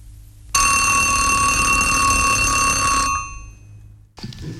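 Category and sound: household object, alarm clock ringing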